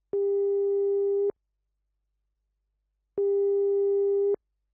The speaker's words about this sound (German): Oh, was ist das denn? Jetzt klingelt das Telefon schon wieder.